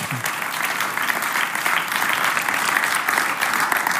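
Sustained audience applause given to Jesus, a dense, steady patter of many hands clapping at an even, fairly loud level for the whole stretch, with no voices standing out.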